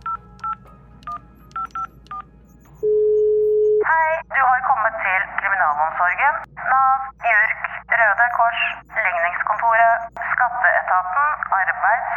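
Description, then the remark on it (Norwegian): A quick series of telephone keypad beeps as a number is dialed to contact the outside, then a single steady ringing tone on the line, followed by a recorded voice speaking over the phone. “Nå må jeg kontakte utsiden.”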